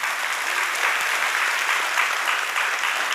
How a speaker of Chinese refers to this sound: 我们把掌声荣耀归给神。